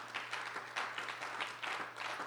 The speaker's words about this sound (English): I think Jesus deserves a hand clap for that. Amen?